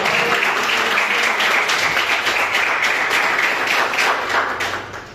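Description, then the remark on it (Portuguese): A crowd claps steadily and loudly, a dense wash of many hands applauding together for the Lord Jesus, holding for several seconds before easing slightly at the end. “Essa é a palavra que o Senhor colocou no meu coração e as palmas que o Senhor Jesus.”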